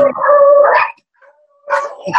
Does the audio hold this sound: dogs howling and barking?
yes